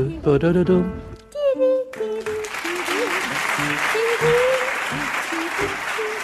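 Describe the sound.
Applause from an audience swells in after a brief stretch of music and continues steadily as a dense wash of clapping, with a man's voice speaking over it.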